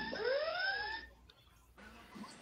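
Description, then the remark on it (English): A phone's text message alert sounds once as a text arrives from its owner's mother: a bright electronic chime with gliding, rising tones that rings for about a second before cutting off, leaving near silence. “That was my phone and sorry about that, you guys.”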